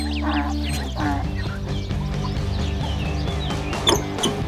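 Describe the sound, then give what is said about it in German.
A metallic squeak from a small passage between a barn and a farmhouse: several wavering, high-pitched squeals rising and falling over a steady low droning hum, with a brief louder squeal near the end. No one speaks. “Ein metallisches Quietschen lenkte ihre Aufmerksamkeit von ihrem Vorgesetzten auf einen kleinen Durchgang zwischen der Scheune und dem Bauernhof.”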